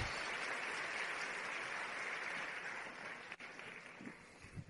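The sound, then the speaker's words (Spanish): Sustained audience applause welcoming a diamond executive, a dense, steady wash of many hands clapping at a constant level for several seconds, thinning slightly near the end with a few scattered claps and faint voices. “Así que yo quiero que me ayuden a recibir con un gran aplauso, diamante ejecutiva”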